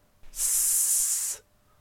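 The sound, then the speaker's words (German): A voice makes one long, steady snake-like hiss, a drawn-out sibilant 's' lasting about a second, fairly loud, with silence before and after. “Schlangenbuchstaben.”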